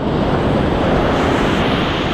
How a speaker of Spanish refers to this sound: venía como de unos 500 metros de distancia. Venía sonando así. taca, taca, taca, taca, taca, taca, taca, taca miraba para atrás, no pasaba nada. Era como que venía un tren. Cuando viene más cerca el sonido, estaba bajo el agua y miro y viene una ola